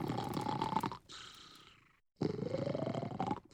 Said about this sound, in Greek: Μόλις ο Λύκος τελείωσε αυτή την νόστιμη μπουκιά, ξαναμπήκε στο κρεβάτι, αποκοιμήθηκε και άρχισε να ροχαλίζει πολύ δυνατά.